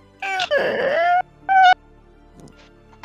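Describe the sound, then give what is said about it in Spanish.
A voice imitates the cry of a small, purplish baby dragon: three whiny wailing bursts, a short squeal, a long warbling moan, then a brief high whimper, followed by quiet. “Mi señor Frolgot y escuchan al bebé dragón.”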